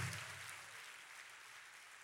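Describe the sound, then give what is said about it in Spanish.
An audience claps together in praise to the Lord in a steady, dense wash of applause that holds for a couple of seconds, sounding subdued, with no one speaking over it. “Dele un fuerte aplauso al Señor por la palabra.”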